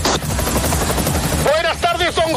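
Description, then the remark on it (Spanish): Loud helicopter rotor noise with a dense, rapid chopping roar throughout, as the helicopter flies over the cross of the Valle de los Caídos to transport the caudillo's remains; about halfway in, a man starts talking over the din. “Nuestra unidad móvil aérea, como bien decían los informativos esta semana, deberán transportar eh, los restos del caudillo en, helicóptero.”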